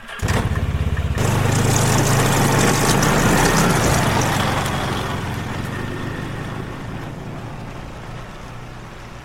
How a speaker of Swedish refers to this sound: Utan ett ord backade han undan och gick tillbaka till sin skoter. Och innan vi hann säga någonting startade han sitt vrålåk och gjorde en rivstart iväg.